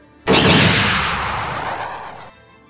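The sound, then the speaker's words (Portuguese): A single loud gunshot goes off with a sharp, explosive crack, then rumbles and fades over about two seconds. Nothing else is heard, and no one speaks. “Lançou o pipoco bravo. O tiro nem, fez, nem fez piu, fez chablau.”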